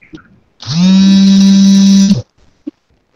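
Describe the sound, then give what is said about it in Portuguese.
A phone vibrating: one loud, steady, low-pitched buzz with a harsh, rattly edge, lasting about a second and a half. A few soft clicks come before and after it. “É, porque o telefone estava tocando, eu tentava limpar a tela aqui, desligar.”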